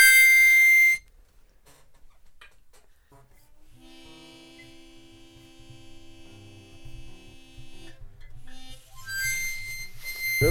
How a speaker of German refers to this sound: Und das ist Rauchmelder.